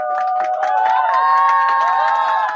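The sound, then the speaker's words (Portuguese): A loud burst of applause and crowd cheering sound effect, dense clapping with sustained whoops and shouts running steadily throughout. “Epá, isto merece aplauso outra vez.”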